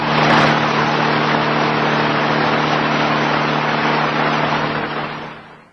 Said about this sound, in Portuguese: Assim que o carro estacionou na frente da igreja,